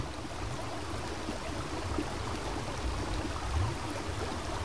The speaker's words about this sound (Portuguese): Os sons do rio também são infinitos em sua variedade. Próximo à margem, junto às pedras, são delicados e melódicos.